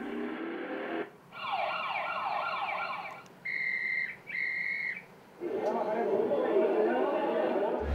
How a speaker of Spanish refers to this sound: qué cantidad acústica nos está aportando el tráfico, el murmullo de la gente, las actividades comerciales, los silbatos. Esto para poder saber qué medidas se van a tomar para poder reducir la cantidad acústica que existe